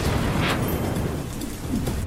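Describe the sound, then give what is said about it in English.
A deep, continuous rumble of thunder from an approaching storm rolls through the whole stretch, heavy in the low end with a faint hiss of rain or wind above it. No voices. “But wait, what's that? Uh oh, it's a storm coming.”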